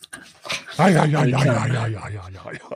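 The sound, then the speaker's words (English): A wolf dog whimpers, a few short yips giving way to a long, wavering whine that rises and falls before trailing off. “He's a wolf dog, and he's got things to look at outside.”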